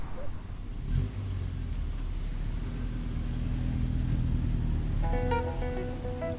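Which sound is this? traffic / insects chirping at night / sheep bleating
traffic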